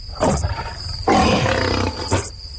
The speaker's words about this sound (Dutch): Een tweede leeuw.